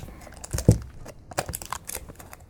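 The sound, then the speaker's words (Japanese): Crinkling and rustling of a paper sheet, stuck with cellophane tape to the top of a canned takoyaki tin, being handled, with one louder crackle early on followed by scattered softer crinkles. No voices. “たこ焼きの缶が、上にね、セロテープで貼り付けた用紙がこれが嬉しい。”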